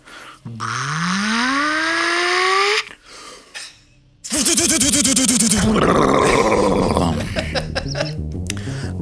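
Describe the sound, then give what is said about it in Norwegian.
Rocket launchers on all the surrounding cars charge up: a rising, whining charge-up tone climbs steadily in pitch for a couple of seconds, then after a brief gap gives way to a loud, harsh, buzzing mechanical roar that fades slightly near the end. “Og dere hører lyden av rakettkasteren som lader opp fra alle bilene som er rundt dere.”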